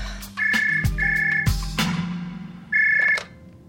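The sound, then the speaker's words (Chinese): A phone number being dialed in a hotel corridor: three steady electronic tones, each held for roughly half a second with short gaps, mixed with sharp clicks and a low hum, with no voices. “然后我就拿着电话，然后把衣服套上，到酒店的走廊里面，就是拨通了这个电话号码，然后显示是反正南方的一个城市。”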